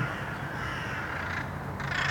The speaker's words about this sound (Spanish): ¿Es normal que haya cuervos en una ciudad? Espera, esos cuervos me están, me están siguiendo.